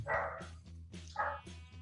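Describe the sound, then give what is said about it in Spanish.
A dog barks twice, with a short pause between the two sharp barks, over a steady low background hum. No one speaks. The dog keeps barking and is frightened. “Y eso es mi perro que sigue ladrando.”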